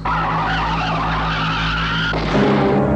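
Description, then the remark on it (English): A car's tire blows out: the tires screech in a long, loud skid under a droning engine, then the sound abruptly shifts near the end as the tire gives way. No voices. “just before the tire blew out.”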